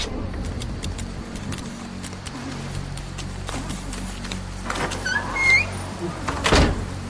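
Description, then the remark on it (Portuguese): A heavy shed door rolls and slams shut with a loud thud near the end as it is locked, preceded by brief metallic clicks and scraping like a latch, over a low steady rumble. “Assim que o último prisioneiro deixa o lugar, Michael tranca a porta, deixando o atirador preso lá dentro”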